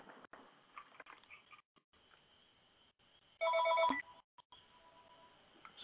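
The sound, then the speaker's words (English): A phone rings once with an incoming call, a short, loud electronic burst of bright tones, standing out sharply against a quiet, faintly noisy background with no talking. “Yeah, my dad actually tried to call me a little bit ago.”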